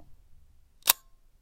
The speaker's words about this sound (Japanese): こんな感じですねフィルムを巻く音とカシャンっていうのがシャッターが切れる音なんですけどもう一回やりますねこんな感じですこれで分かった人はかなりのカメラフェチっていうかライカフェチだと思うんですけど